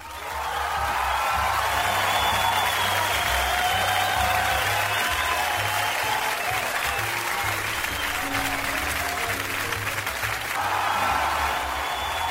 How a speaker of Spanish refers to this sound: Los aplausos para el señor